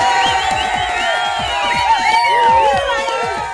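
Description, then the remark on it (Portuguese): A crowd cheers and applauds, with many overlapping shouting voices over a steady, loud wash of claps that holds for the whole few seconds. “Enfim, é melhor aplaudir porque eu vou embora.”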